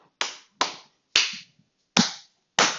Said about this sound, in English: Hope you can hear that. I hope that's near the mic enough that you can hear me clapping.